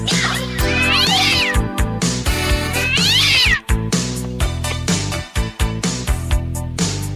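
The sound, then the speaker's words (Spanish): A person singing a song imitates a howling cat, letting out two long, wavering yowls that rise and fall, loud over dense, driving music. “tienes que aullar.”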